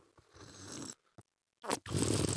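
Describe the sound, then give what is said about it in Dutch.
Someone slurps wine while drawing air through it: a hissy, gurgling inhale lasting nearly a second, a brief pause, then two more rough, airy slurps. No talking. “Dan neem ik eerst een slok, doe ik altijd zo.”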